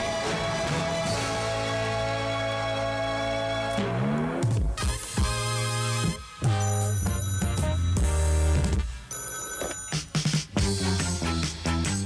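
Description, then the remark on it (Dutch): A telephone rings with a bright, electronic ringtone-like melody that plays continuously and loudly, with repeated tonal bursts and shifting harmonic notes for about twelve seconds, with no voices present. “Inderdaad, het eh, telefoontje luidt.”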